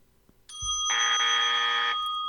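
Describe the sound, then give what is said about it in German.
A reception desk bell, used as a quiz buzzer, rings: one bright ding, then a rapid, continuous metallic ringing that lasts about a second before stopping. No voices are heard. “Ich habe zuerst äh, die Rezeptionsklinge gehört”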